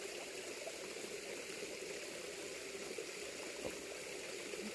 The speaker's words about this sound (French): Écoute ici quelques instants le bruit de l'eau, le chant des oiseaux, le tremblement, le bruissement des feuilles entre elles.